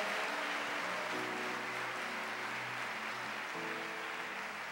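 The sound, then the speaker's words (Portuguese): A large audience claps loudly and continuously for about five seconds in praise of God, a dense, steady roar of applause with sustained low musical tones underneath. “Você crê neste Deus? Aplauda Ele bem forte, diga aleluia.”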